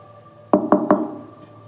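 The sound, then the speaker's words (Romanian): Three firm knocks on a door in quick, even succession, resonant, followed by a brief quiet tail with no voices. “Iată, eu stau la ușă și bat.”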